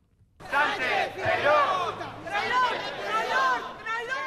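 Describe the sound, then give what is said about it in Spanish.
A protest crowd in front of Socialist party headquarters in Pamplona (Iruña) or Bilbao shouts slogans in unison, chanting 'Sánchez a prisión' and in favour of Spanish unity: many raised voices begin abruptly after a brief quiet moment and carry on loudly, surging in a rough rhythmic chant until the end. “aunque aquí también se repiten los mismos gritos de Sánchez a prisión, hijo de puta y a favor de la unidad de España.”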